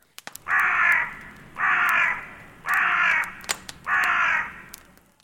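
A raven caws four times in a steady rhythm, each call a harsh, drawn-out croak, loud, with a few faint clicks in the background.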